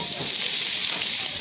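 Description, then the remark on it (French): Courgettes sizzle steadily in a frying pan, a dense, bright crackle of hissing and popping that stays even and fairly loud throughout, with no voices. “Vous êtes en train de vous dire que ça marche pas chez vous et que ça grésille parce qu'on a une mauvaise liaison, mais pas du tout.”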